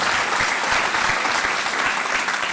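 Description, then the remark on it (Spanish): A crowd claps steadily and loudly for a few seconds, a dense wash of many hands applauding at once with no pauses. “Dale ese fuerte aplauso. Give that strong applause.”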